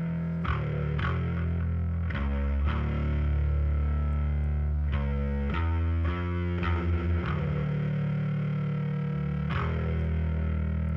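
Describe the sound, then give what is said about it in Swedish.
An electric bass guitar with effects plays a run of plucked, distorted notes with a thick, buzzy tone and some chorus-like shimmer. Steady and fairly loud, with no voices. “Klart att basisten ska få eh, bubbla lite på överst också.”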